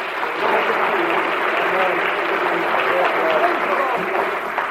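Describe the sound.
A crowd applauds steadily, dense clapping filling the room at an even, loud level for several seconds, with faint voices mixed in underneath.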